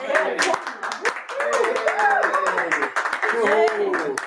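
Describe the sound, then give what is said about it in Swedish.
An audience that has listened to a lecture applauds with a dense, steady patter of claps, mixed with lively overlapping voices that rise and fall throughout. “Gud vad härligt med applåder!”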